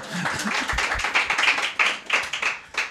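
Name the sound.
applause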